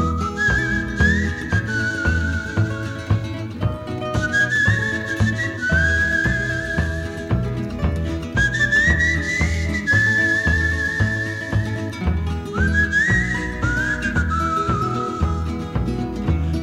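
A clear whistled melody rides on top of a full band accompaniment, its pure, sliding tones repeating in short phrases throughout, steady and prominent with no voices.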